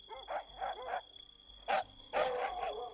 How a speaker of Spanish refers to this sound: y al quedar libre, oyó como por todas partes ladraban los perros.